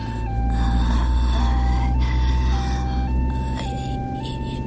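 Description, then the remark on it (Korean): A two-tone siren of a Korean 119 ambulance alternates steadily between high and low pitches, sounding muffled as if heard from inside the vehicle over a loud, constant engine rumble. “여기 119 구급차 아니에요.”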